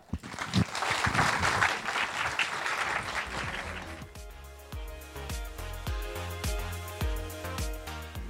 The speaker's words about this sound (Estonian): aitäh, suur aplaus